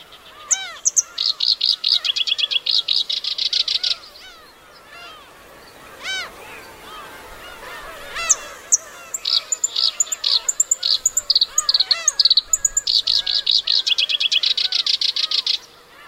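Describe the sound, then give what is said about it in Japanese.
A black-browed reed warbler sings in grassland on Teuri Island, Hokkaido, Japan, in long bursts of rapid, high, buzzy chattering notes, pausing between phrases, while softer calls from other birds carry on in the background. “天売島（北海道）のコヨシキリをお届けします。”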